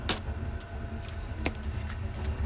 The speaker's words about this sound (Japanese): 今ちなみに菊の花びらを洗ってるところなので流水音が流れてると思います